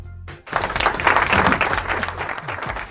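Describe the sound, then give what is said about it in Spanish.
A crowd bursts into steady applause after a brief quiet moment, applauding Lula's return to the Mercosur summit: a dense wash of clapping hands that stays loud and continuous throughout, with no voices standing out. “Hay que aplaudir.”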